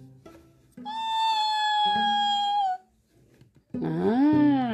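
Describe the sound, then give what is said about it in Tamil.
A child's voice imitates a fox's cry: a long, high, steady wail lasting about two seconds, then after a short pause a shorter, wavering call that rises and falls, fairly loud. “ஒரு நாள் நரியும் பூனையும் பேசிட்டு இருக்கு நரி எப்படி கத்தும்”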